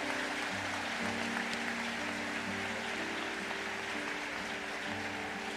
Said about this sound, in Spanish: Alguien déle un fuerte aplauso a ese Dios misericordioso.